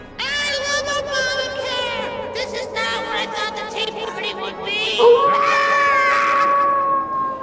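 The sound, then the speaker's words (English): Eerie banshee shrieks: layered, high-pitched wailing voices rising and falling continuously, loud, with a sharper cry swelling near the end and no talking. “Ah, beware on the right, it's a banshee.”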